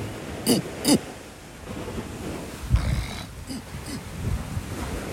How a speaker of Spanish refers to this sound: Disculpen por ese sonido, pero en realidad me estaba picando mucho la garganta y no podía aguantar.